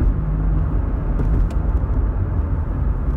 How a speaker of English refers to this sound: a couple of speed demons, three cars all speeding by me on the, the right side, and uh, I think they're all together.